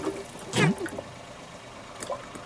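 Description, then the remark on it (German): A quick hiss of seawater sprays out of a spray bottle in a short burst, followed a moment later by a fainter second spritz, against a quiet background. “Ich weiß zwar nicht, wer Sie sind, aber Sie können hier nicht einfach Unkrautvernichter versprühen.”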